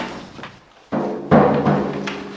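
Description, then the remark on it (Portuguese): A drum is struck several times at an uneven pace, each hit a sharp, booming thump with a resonant ring that fades before the next, fairly loud. “Tambor parece o som de um tiro.”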